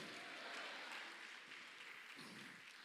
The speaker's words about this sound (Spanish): Vamos a ver, le damos palmas al Señor. A su nombre.